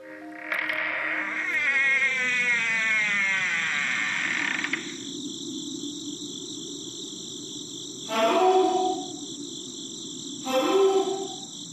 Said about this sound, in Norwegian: Jeg kommer inn i et stort rom, som er overraskende trekkfullt, og med langt flere sirisser enn forventet.